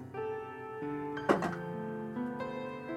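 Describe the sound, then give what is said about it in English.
New dice clatter briefly across a table in a first roll for a perception check, a quick cluster of hard rattling clicks that settles within a moment, over a steady, sustained musical drone. “First roll with the new blessed dice.”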